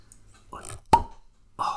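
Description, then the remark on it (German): A single sharp cork pop as a cork comes out of a bottle rings out near the middle, bright, with a brief hollow tone trailing after it, surrounded by soft murmuring and quiet movement. “Es ist wieder immer schön, einen wundervollen Korken gehört zu haben, nachdem wir öfters immer wieder Schraubverschlüsse dazwischen haben, welch Frevel.”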